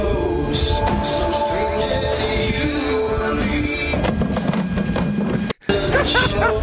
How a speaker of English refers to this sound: oh wait, that's just that's the noise it made. That's just him falling down this. Wow, that's perfect.